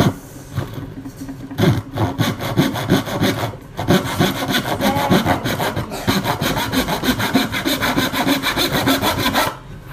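A hand saw cuts through wood in steady, rapid back-and-forth strokes, loud, with a couple of brief pauses before the rasping rhythm resumes and carries on to the end.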